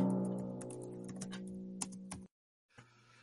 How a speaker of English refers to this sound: Who's googling over there? Extreme guess. Here's some typing.